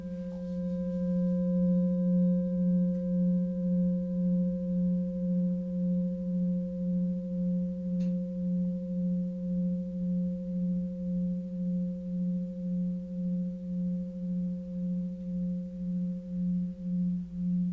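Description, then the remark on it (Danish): A singing bowl is struck once during a guided meditation and left to ring, its deep, steady hum with softer overtones sustaining for the whole stretch and wavering in a slow, pulsing shimmer. No voices are heard. “Om et øjeblik spiller jeg på en skål, som du kan lytte til igennem dit hjerte, fra dit hjerte eller til dit hjerte.”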